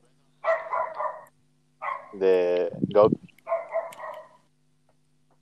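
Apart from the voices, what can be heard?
small dog barking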